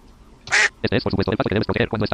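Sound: video game duck quacking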